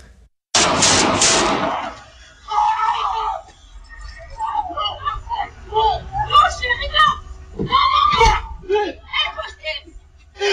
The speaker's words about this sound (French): vous allez entendre rapidement le trois coups de feu, puis ensuite la panique